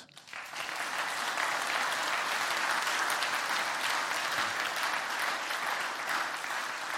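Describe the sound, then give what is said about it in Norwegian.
Sustained audience applause for the organization's leaders of the past 20 years, a dense steady wash of many hands clapping that swells in quickly and holds at a loud, even level throughout. “De fortjener en applaus.”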